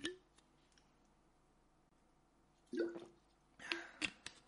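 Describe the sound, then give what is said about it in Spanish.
A person drinks a little water to hydrate: a few brief, wet gulps and swallowing clicks separated by quiet pauses, with a cluster of louder sips near the end. “A ver, chavales, voy a beber un poquito de agua, voy a hidratarme.”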